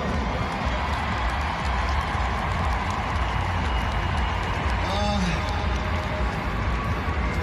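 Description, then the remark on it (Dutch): A large concert crowd at a band's performance roars and cheers steadily, a dense wash of shouting and applause with no break, and one voice rises in a brief whoop partway through. “En … was hoorbaar onder de indruk van eindelijk weer eens een keer een publiek voor zijn neus.”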